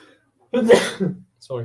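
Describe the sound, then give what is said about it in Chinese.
A single loud sneeze, a sharp voiced burst with a breathy hiss that trails off after about half a second, followed by a short pause and a person starting to speak. “哦，我有点想打喷嚏，等我一下。”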